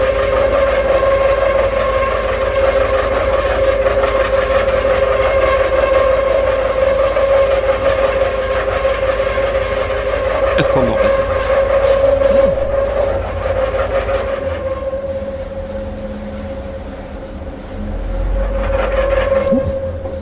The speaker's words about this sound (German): dass dieses Boot in dem Moment irgendwo gegengefahren ist? Auch jetzt ist er nicht gegengefahren, sondern er hat einfach bloß von vorwärts auf rückwärts umgestellt.